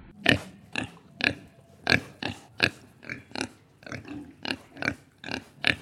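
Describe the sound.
A wooden stick, held by its other end rather than the usual striking end, knocked against the wooden xylophone bars makes a run of about a dozen short, grunting bursts that sound like pigs oinking, in an uneven, bouncy rhythm with no voices.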